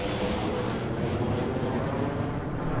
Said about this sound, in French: Voilà un avion qui décolle du Bourget, là. Et donc il, sera en plein pile au-dessus de City.